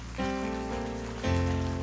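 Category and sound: crowd, audience applause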